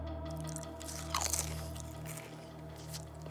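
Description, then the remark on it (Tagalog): Crunchy chewing of people eating shrimp in the middle of a forest in Negros, with repeated wet crunches that peak in a louder burst partway through, over a steady low hum and no voices. “Maya-maya raw nakita raw po nila na sarap na sarap yung ibang mga kasama nila sa pagkain ng hipon.”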